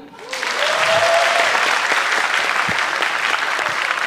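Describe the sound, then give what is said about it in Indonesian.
A crowd in a room breaks into sustained applause that swells quickly and holds steady, a dense wash of many hands clapping together in agreement with a question about ladies' parking at malls, with a faint voice briefly audible at the start. “Siapa yang setuju di ruangan ini kalau ladies parking di mall diciptakan untuk perempuan yang males cari parkir boleh tepuk tangan?”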